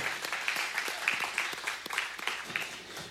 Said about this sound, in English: And I'm just grateful for an amazing worship team. I just want to give them just another round of applause this afternoon for their awesome work.